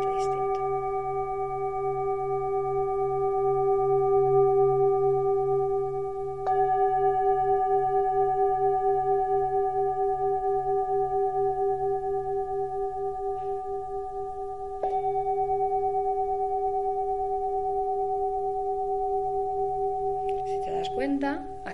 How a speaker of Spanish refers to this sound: Pasamos ya a los cuencos tibetanos. Como veremos, ya veréis, es otro sonido totalmente